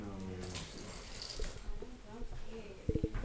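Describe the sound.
Keys are shaken in a brief bright metallic jingle that rings out for about a second, with muffled voices talking around it and a short vocal sound near the end.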